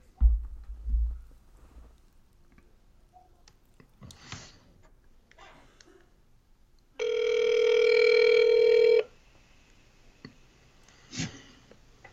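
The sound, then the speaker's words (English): A phone's ringback tone, while calling a friend, sounds once as a steady, buzzy two-second burst, loud, after a few soft thumps and handling noises. “I hope he answers.”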